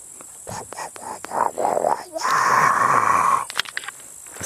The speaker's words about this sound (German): So, nochmal zum Raten. Wie klingt das Moor? Genau, ihr habt recht. Es klingt so.